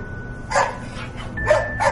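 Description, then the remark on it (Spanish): A dog, Milú, left outside an elevator, gives three short, sharp barks, one then a quick pair, with a thin, high whimpering whine running faintly between them over a low background hum. “El perro le mira.”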